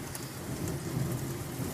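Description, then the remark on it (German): Steady, dense rain pours down during a midday thunderstorm, with a low, continuous rumble underneath. No one speaks; the hiss of rainfall stays even and fairly loud throughout. “wenn ich von blitzendem Donner und Gewitter, das sich gerade noch in Haare verwandelt hat, äh, aus dem Schlaf gerissen werde, aus meinem mittäglichen.”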